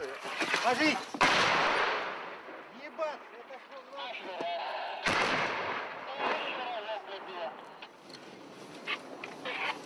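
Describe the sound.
Artillery fire: two loud, heavy booms a few seconds apart, each with a rumbling tail. Agitated voices shout and talk throughout, between and over the blasts.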